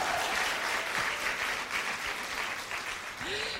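A crowd applauds steadily, dense clapping at an even loudness throughout, with a brief vocal whoop rising near the end.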